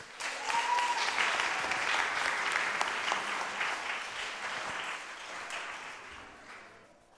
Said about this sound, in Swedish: Vi ger dem en stor applåd.